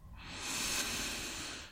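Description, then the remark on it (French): A slow, steady inhalation through the nose during a guided breathing exercise, a soft airy hiss that swells and holds for under two seconds, heard alone with no talking. “on va effectuer cela une troisième et dernière fois Inspirez par le nez.”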